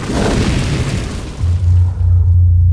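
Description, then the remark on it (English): A loud, roaring fireball blast at the MGM Grand Hotel in Las Vegas, fueled by wallpaper, PVC piping, glue and plastic mirrors and racing across the gaming area, with a broad crackling rush that fades over a couple of seconds into a deep, sustained low rumble. No voices are heard. “The resulting fireball, fueled by wallpaper, PVC piping, glue, and plastic mirrors on the walls, raced across the gaming area at an incredible rate of speed and blew out of the main entrance on the west side of the hotel towards the Las Vegas Strip.”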